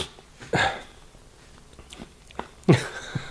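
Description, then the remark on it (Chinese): Two short, wet gulping sounds of someone swallowing saliva, about two seconds apart, each a brief mouth click and swallow with faint breathing and no talking in between. “不好意思咽点口水啊。”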